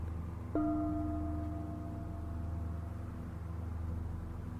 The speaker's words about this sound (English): Inside the structure, there is the distinct sound of metal striking metal. The sound is periodic and is not loud.